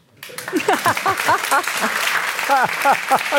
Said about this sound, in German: Es wird viel zu wenig geklatscht.